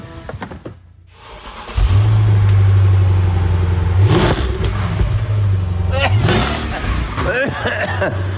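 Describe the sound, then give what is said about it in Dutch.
The V8 engine of a black, non-metallic eight-cylinder convertible car with a brown leather interior cranks and fires up, settling into a deep rumbling idle before being revved hard a couple of times, loud, with brief voices in the background. “Laat het geluid maar horen. Ik slinger hem aan voor je.”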